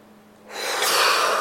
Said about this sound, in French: En inspirant d'abord, on va tendre les bras, serrer les poings et on inspire puis on bloque sa respiration. On retient tout et en soufflant très fort, on lâche.